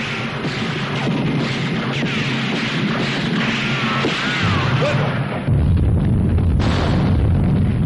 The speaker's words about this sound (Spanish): Continúan los disparos entre tropas.